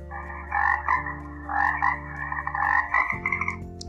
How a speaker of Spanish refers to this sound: Cuando yo diga el nombre de un animal, tú vas a hacer el sonido que los imita. Por ejemplo, si yo digo rana, harás este sonido.